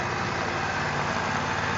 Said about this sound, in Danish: En John Deere-traktor derimod.